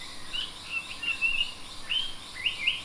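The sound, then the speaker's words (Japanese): A Japanese paradise flycatcher calls at dawn beyond the mangroves, near a colony of sagaribana flowers, with a series of short, high chirping notes in an uneven rhythm against a soft background hiss of the forest, with no talking. “マングローブ越しの空がオレンジからピンクに染まっていくのを眺めながら奥へと進みようやく下がり花の群落にたどり着く頃参考町の声が聞こえてくる”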